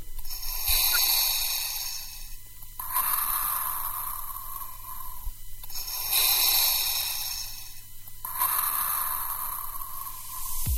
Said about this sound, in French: C'est euh, euh, Dark Vador.